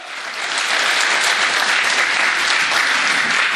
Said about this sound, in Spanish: Dele palmas al Señor, hermano, aleluya, aleluya.